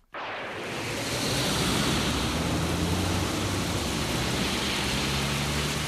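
A dense, steady roar of heavy rain and gusting wind on a stormy, gloomy night by the South Sea coast swells up within the first second, then pours on loud and unbroken, with a low rumble underneath and no voices.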